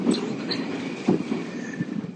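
A metro train rumbles steadily along the track, with a continuous low roar, faint high squeals from the wheels and occasional clunks as the carriage rolls on.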